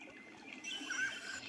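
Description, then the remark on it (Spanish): Steady rushing river water flows throughout, a continuous hiss that swells slightly partway through, with a brief thin bird chirp rising above it near the middle. No voices. “El recorrido del agua en los ríos. El cantar de la gran variedad de aves.”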